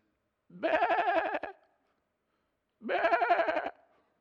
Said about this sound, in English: Samuel goes, Oh, yeah? What's this bleating of the sheep in my ears?